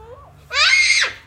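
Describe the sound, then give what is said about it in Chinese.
A soft, wavering vocal sound is followed by a single loud, piercing child's scream, shrill and strained, lasting about half a second before dropping away quickly. “只会尖叫。”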